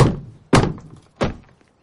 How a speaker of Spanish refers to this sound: En el suelo, delante del bloque de nichos, una tumba. El hombre moreno con barba le da martillazos. La tapa se abre.